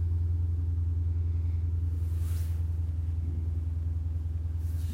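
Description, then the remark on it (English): A loud car engine, which the speaker thinks is a Charger, rumbles steadily, a deep throbbing low growl that holds for the whole stretch, with a brief higher whoosh swelling midway as it passes. “Gotta get that, uh, I think that's a sh- one of them uh, chargers. I don't know what the hell that is. That shit's loud as hell.”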